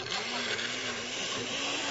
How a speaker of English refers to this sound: Now all of this goes into the centrifuge, like this blender, and